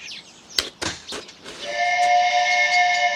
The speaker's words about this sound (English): That, my lad, was a steamboat whistle. You see it down there? Oh, me see 'em. Boat just come around bend.